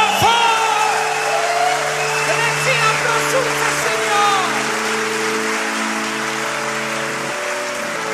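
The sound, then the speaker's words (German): A crowd gives Jesus a mighty round of applause, clapping steadily and cheering, with scattered whoops rising above the dense applause, while sustained keyboard chords hold underneath and shift once or twice. “Komm, wir geben Jesus nochmal einen mächtigen Applaus.”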